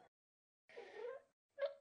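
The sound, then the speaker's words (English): A cat meows twice, a drawn-out wavering meow followed by a shorter, sharper one, both fairly soft and with no talking over them. “Hi, kitty. Go away.”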